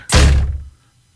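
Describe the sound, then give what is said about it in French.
A single loud thud as a woman trying to go out of the house walks smack into a freshly washed glass patio door, the heavy impact ringing briefly before fading into silence. “Elle venait juste de laver à porte patio.”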